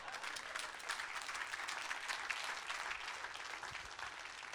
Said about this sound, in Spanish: Me tendría que dar un aplauso por lo menos.